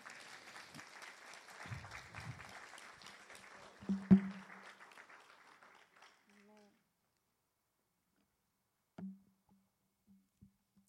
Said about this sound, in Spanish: Amén. Gracias Señor. Démosle un aplauso al Espíritu Santo.